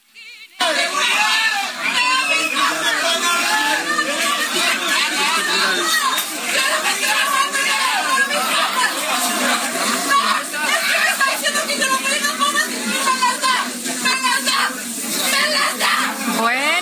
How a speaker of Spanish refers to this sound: ya escuchó usted los gritos de esta mujer.